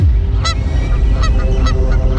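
Several geese honk in quick succession, their harsh nasal calls cutting through a steady low rumble, with a few louder honks standing out.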